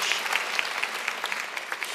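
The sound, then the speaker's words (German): An audience in a church claps steadily in applause for teachers, a dense wash of overlapping handclaps at moderate volume that keeps going without pause, with no one speaking over it. “Wir sollten allen Lehrern mal einen richtigen Applaus geben.”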